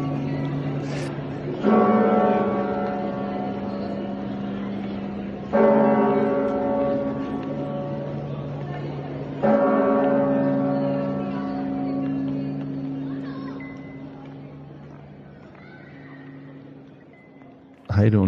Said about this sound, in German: ist der Klang der Glocken der Kathedrale. Die haben mhm. was ganz Besonderes, meines Erachtens. Die habe ich sogar aufgenommen, weil ich fand, dieser Klang dieser Glocken, die sind toll.